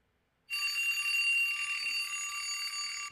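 An old-style battery-powered alarm clock rings loudly, a continuous metallic bell clatter that starts after a brief silence and runs unbroken for about two and a half seconds before stopping.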